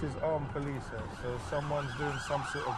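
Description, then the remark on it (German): A police car siren in Croydon, South London, with armed police officers in the car, wails in quick, repeating rising and falling tones, loud and steady for the whole stretch, with a faint hum of traffic beneath it. “Schauen Sie, in dem Wagen sitzen bewaffnete Polizisten.”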